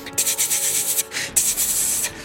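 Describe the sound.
Harsh, bright scratching strokes rasp against windows in repeated rubbing bursts, creatures scratching with long, branch-like appendages at the windows and door; loud and continuous with a brief pause in the middle before resuming; no voices are heard.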